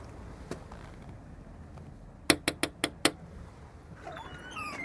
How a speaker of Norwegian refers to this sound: Jeg trodde kanskje jeg var gått i feil buss, så nå har jeg banka på litt forskjellig.